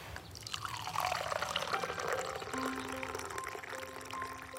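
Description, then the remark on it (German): Tea poured into a cup outdoors under a black pine tree, a steady stream for several seconds, a splashy gurgle whose ringing tone rises as the cup fills, with no voices. “Zeit für einen Tee.”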